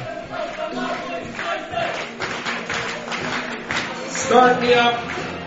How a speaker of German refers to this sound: Sehr niveauvolle Gesänge hier von irgendwelchen Fans aus Marburg.